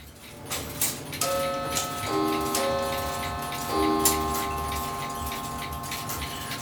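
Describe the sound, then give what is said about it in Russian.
A mechanical clock ticks steadily, its sharp clicks layered with several ringing metallic tones that sound and slowly fade, with no voices present. “Да, часы достаются, конечно, людям по-разному, я же говорю, кто покупает,”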